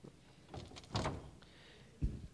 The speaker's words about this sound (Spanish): Voy a cerrar la puerta de aquí.